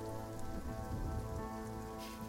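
rain falling outside

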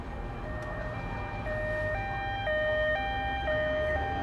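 ambulance siren

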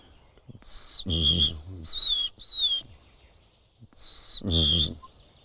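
common redstart song

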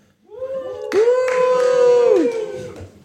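audience cheering loudly

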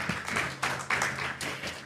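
applause

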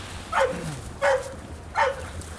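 dog barking

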